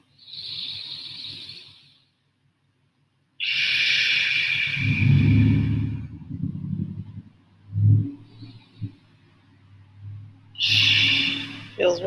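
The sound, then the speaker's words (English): Slow, deep breaths drawn in and pushed out as a breathing exercise, three long airy whooshes separated by pauses, with some soft low murmuring sounds between them. “So try to keep your feet on the ground and stay balanced, meditate 10 minutes, deep breathing.”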